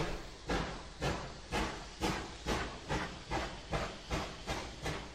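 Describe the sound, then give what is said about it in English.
A steam train pulling into a station platform chuffs steadily, with rhythmic bursts of hissing exhaust roughly every half second, loud, the regular puffs carrying on without any voices. “quickly technical imaginations applied themselves to higher things, like old steam trains pulling into a station platform on the left, and then, after much clanging of doors and blowing of whistles, departing across the centre and off to the right.”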